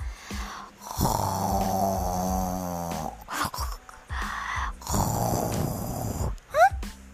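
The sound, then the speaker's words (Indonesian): Loud, exaggerated snoring of someone still asleep in the morning, in two long rumbling inhales with brief gaps between, ending with a quick whistling squeak; it sounds like a voice performing the snores rather than real sleep. “lebah itu pun mencari dari mana asal suara dengkuran yang sangat keras itu”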